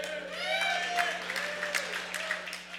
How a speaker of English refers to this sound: Is that people clapping the fact that Liverpool cost the title?